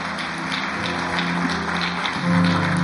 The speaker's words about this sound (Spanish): ¿Alguien puede darle un fuerte aplauso al Señor?